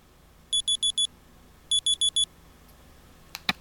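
A phone alarm tone named 'Beep' plays as it is selected in the phone's alarm sound settings, beeping in two quick bursts of four high electronic beeps, separated by a short pause, followed by a brief tap near the end. No one speaks.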